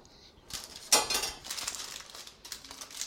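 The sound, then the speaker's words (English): A spatula scrapes and smears thick fudge across an 8x8 metal pan lined with parchment paper in several uneven strokes, moderately loud, with soft metallic clinks and no one talking. “Spread that out with your spatula.”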